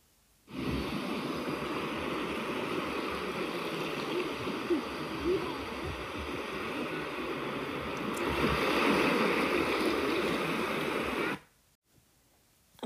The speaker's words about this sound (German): Nach einem anstrengenden Flug stehst du endlich vor dem Strand Italiens und genießt das Meeresrauschen.